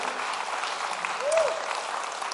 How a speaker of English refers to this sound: Aren't you thankful for that tonight? Come on, let's clap our hands to the Lord and let's praise him.